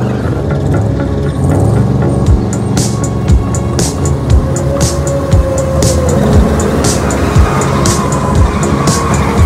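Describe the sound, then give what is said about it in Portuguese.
Car engines rev loudly and steadily, with sharp tire squeals and repeated mechanical bursts cutting through the roar; dense, continuous motor noise with no talking. “Vamos pôr os motores a funcionar e revelar tudo.”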